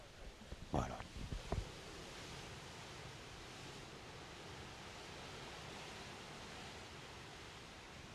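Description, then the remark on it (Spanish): A steady, rushing wash of ocean surf on a beach fills the whole recording at an even level, with a couple of brief knocks near the start and no clear talking. “la playa es bella. Yo me estoy durmiendo con el sonidito de las... y mirándolas así. Sí, se oye, la gente la podrá escuchar.”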